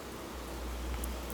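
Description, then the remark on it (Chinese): Rain falling outside, a steady, even hiss of moderate loudness with a faint low rumble underneath and a couple of soft, brief high ticks near the end. No one speaks. “然后现在就是下雨呢，就可以跟大家分享一下说在下雨哦，这样的声音这样子，我觉得有不一样的感觉哦。”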